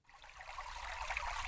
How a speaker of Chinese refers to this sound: 这次他来到了一条小溪前。